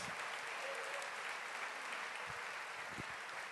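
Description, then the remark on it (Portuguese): An audience applauds steadily to give glory to God, a dense, continuous wash of many hands clapping at an even level for the whole stretch, with no voices standing out above it. “Aplauda a glória dele na sua vida grande.”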